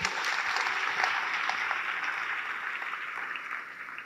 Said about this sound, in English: Please give him a round of applause wherever you are.